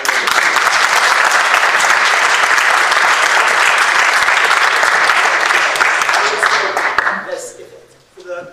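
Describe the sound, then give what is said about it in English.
A crowd bursts into loud, dense applause that holds steady for about seven seconds, then quickly thins out and fades to a few scattered claps. “I want to cheer for that conversation by somebody.”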